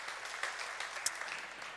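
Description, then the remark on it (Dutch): A crowd applauding the children together, a steady wash of many hands clapping at moderate volume, with a few sharper individual claps standing out, no speech. “Ja, zullen ze de kinderen zich wel een applaus geven?”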